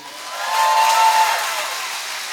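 An audience applauds for about two seconds, a dense steady patter of clapping that swells slightly in the middle, with a brief high whistle-like tone riding over it.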